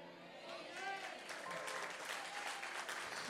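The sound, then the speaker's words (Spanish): A church audience applauds loudly and steadily for the Lord during a sermon, dense clapping, with a voice briefly rising over the ovation early on. “Alguien le da un aplauso fuerte al Señor.”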